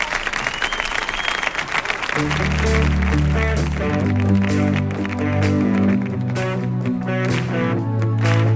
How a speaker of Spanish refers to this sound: Y señoras, señores, vamos a recibir con un atronador aplauso, por favor,